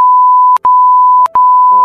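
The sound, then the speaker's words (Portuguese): A loud, steady censorship bleep tone runs through nearly two seconds, broken by two quick dropouts, with a faint muffled voice barely audible beneath it toward the end. “Olha, eu bipei essa parte toda aí porque já vira de informação, né?”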